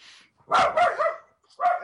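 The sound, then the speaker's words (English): A pet dog barks twice in quick succession, then gives a third sharp bark after a short pause, fairly loud, with no talking. “there's my dog barking.”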